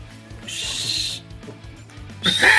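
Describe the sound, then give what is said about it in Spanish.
Two shrill, high-pitched whistles with no talking: a steady blast lasting most of a second, a brief lull, then a louder, sharper whistle at the end. “Chiflido confirmante, chiflido confirmante.”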